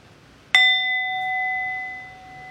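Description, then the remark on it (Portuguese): A single meditation bell is struck once during a Zen meditation practice, its clear metallic tone ringing out and sustaining steadily with a long, slowly fading resonance. “Daqui a pouco eu vou convidar o sino a soar e não se mexe rapidinho ainda não.”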